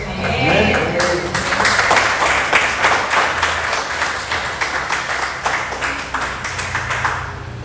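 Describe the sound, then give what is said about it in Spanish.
An audience applauds loudly, dense steady clapping that holds for several seconds, with some voices mixed into the crowd noise. “Pero nuestra fe dinámica, nuestra fe intrépida, es que vemos lo que Dios ve y ve una iglesia llena, alabando, adorando y dando un aplauso a Dios.”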